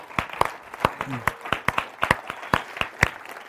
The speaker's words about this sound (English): and uh, I'd love us to give them a, a round of applause.